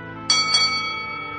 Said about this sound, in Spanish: dos campanadas que anunciaban la visita del médico y que hicieron asomar a la verja la cara ingenua y aniñada de Sor Cayetana de la Natividad.